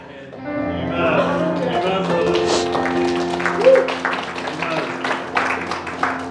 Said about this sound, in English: what, what more beautiful sound could there be than kids celebrating and learning to worship and learning, like,